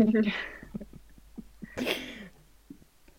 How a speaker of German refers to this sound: Gott, ich habe gerade gerülpst. ich habe so Angst, dass man das durch das Mikro so ein bisschen mehr hört.